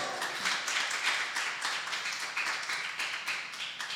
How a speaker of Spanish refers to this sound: ¿Quién puede darle un aplauso a Dios?